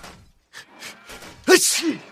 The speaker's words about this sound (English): What was that? What was that sneeze? One of you, check out. We will continue to march. Guys, guys, come on. We're no, just, uh, that's not them. That's that was me. That was my sneeze. That was my sneeze.